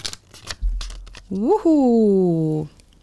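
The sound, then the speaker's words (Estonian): A few quick crinkles and rustles of paper as a numbered paper slip is drawn from a table in a lottery draw and opened, followed by a person's drawn-out voiced sound. “vaid minu ees laual on paberilipikud ja me tõmbame loosi ja kuna me teie nimesid ette ei, ei lugenud, siis seal paberite peal on numbrid nii, võtame siis selle siit ja vaatame.”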